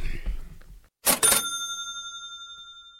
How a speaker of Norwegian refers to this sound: er vi kommet til kassa, og der skal vi bippe et eller annet gjennom.